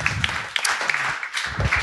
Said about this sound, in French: Et bien sûr, je vous redemande d'applaudir nos chers chroniqueurs qui ont beaucoup donné du leur, qui se sont donnés à nu.